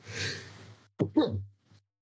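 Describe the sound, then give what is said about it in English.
A single sneeze: a long, breathy buildup, a brief pause, then a sharp explosive burst that trails into a voiced exhale, followed by a faint short breath. “wow, I sneezed.”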